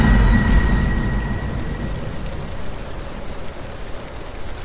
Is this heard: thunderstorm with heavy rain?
yes